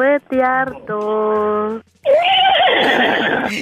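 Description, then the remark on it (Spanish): A horse neighs loudly: a couple of short, quavering bursts, then a longer, rougher whinny that trails off over a few seconds. “Es el que relincha.”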